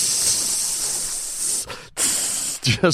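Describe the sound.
A voice imitates acid sizzling through wood and the structure of a building, with a long, steady hiss that breaks off briefly, resumes, then trails into a short voiced sound near the end.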